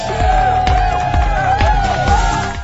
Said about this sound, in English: let's give a round of applause for you guys. You deserve it